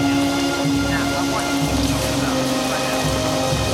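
Heavy rain from a storm pours down in a steady, dense hiss that never lets up, with a low rumble murmuring faintly underneath like far-off thunder.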